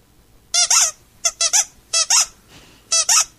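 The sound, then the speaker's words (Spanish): A squeaky toy is squeezed for a dog named Alén Delón in short bursts, mostly in pairs of high, wheezy squeaks with brief pauses between them, loud and with no one talking. “Mirá, Alén Delón, mirá, mirá el muñequito, mirá.”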